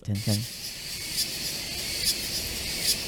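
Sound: cicada buzzing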